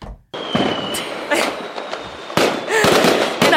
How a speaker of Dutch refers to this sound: Ja, zullen we gewoon even heel symbolisch even wat vuurwerk afsteken?